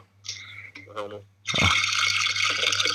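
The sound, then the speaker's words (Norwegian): After a brief bit of voice, a steady stream of liquid from a just-finished drip coffee maker is poured into a cup in a kitchen, a loud, continuous splashing hiss that runs without a break until the end. “Nå skal jeg helle det over. Nå skal dere få høre.”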